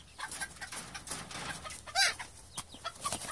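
Several chickens cluck and squawk in quick, irregular bursts, with one louder, sharper call standing out midway, and no one is talking.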